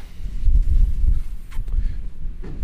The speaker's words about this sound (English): Yeah. Blooming wind, the invisible enemy, isn't it? Well, yesterday it was the invisible friend. Let's be honest. It blew oh, us.